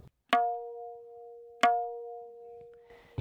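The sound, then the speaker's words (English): Two crisp tabla strokes played with the first finger on the outer edge of the right-hand drum, the note called da, each a sharp tap that rings out into a clear, sustained pitched tone, spaced about a second apart, solo. “So on the outside edge with my first finger, that note is called da, and it sounds like this.”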